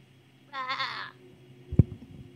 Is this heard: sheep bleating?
yes